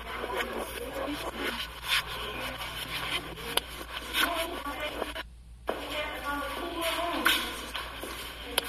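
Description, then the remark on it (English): A few scattered, shuffling footsteps sound faintly against a constant hiss and low electrical hum, with a couple of steps landing close together. “do hear footsteps in there.”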